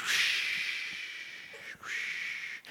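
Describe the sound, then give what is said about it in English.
A voice imitates ocean waves with a long, steady breathy shushing hiss, fairly loud, briefly breaking twice before surging again. “i don't want to do too much sounds of waves because you guys will go to sleep”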